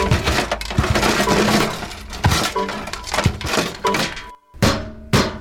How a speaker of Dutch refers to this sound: Dat ding zoekt oorlog. Nooit meer koop ik die Duitse troep. Je zal het krijgen met mijn hamer, vieze vinylvreter.